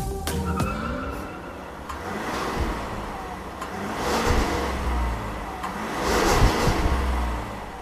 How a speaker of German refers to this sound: Diesel und klingt auf jeden Fall kraftvoll. Das ist kein Vierzylinder, das glaube ich, kann man schon ganz gut raushören. Es klingt sechszylindrig. Ja, was daran liegt, dass es ein Sechszylinder-Diesel ist.